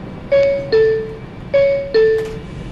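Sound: subway train running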